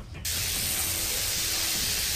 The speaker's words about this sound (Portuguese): e tu volta a escutar o zunido de, de eletricidade.